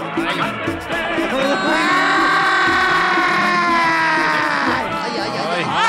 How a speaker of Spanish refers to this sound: ¡Ay, pero qué buen gol! ¡Qué, gritos!